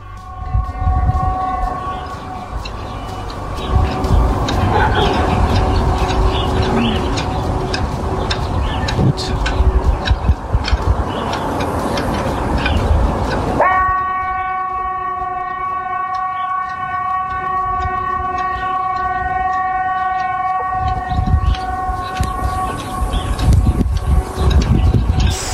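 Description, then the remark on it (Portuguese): A civil defense air raid siren sounds from a noisy outdoor scene in northern Sweden, then holds a loud, steady, droning tone for several seconds before fading back into rumbling background noise. “Tocou a sirene e ninguém sai de casa.”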